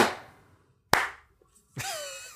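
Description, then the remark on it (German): Three separate hand claps land at uneven moments as people try to clap together after a countdown from three to zero, each a sharp, bright smack with a short ringing tail, followed by a fainter tonal sound at the end. “Okay, ich klatsch, äh, Quatsch, ich zähle kurz von 3, 2, 1 auf 0, dann äh, klatschen wir in die Hände.”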